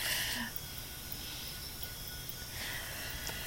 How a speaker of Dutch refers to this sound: We horen trouwens op de achtergrond steeds meer vogeltjes en insecten en een soort fluitend geluid. Dit, mensen in Nederland, is natuur. dat kennen we niet. of amper.